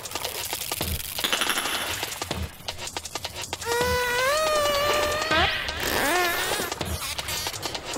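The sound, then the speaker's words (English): Pacific spotted dolphin clicks and whistles: rapid trains of sharp clicks run throughout, joined midway by a long, steady, slowly rising whistle and then quick warbling, looping whistles. “Pacific spotted dolphin.”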